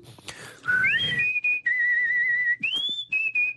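A live whistling performance as vocal mimicry: high-pitched human whistling in a sliding, warbling melody that rises and then holds long bright sustained notes with small pitch steps, loud and clear with no talking over it.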